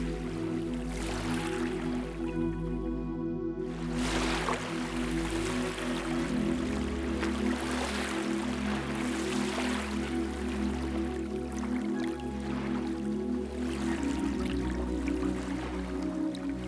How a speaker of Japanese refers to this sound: この波が象徴しているのは浄化ですひいては返すこの波があなたの心を洗い流していきます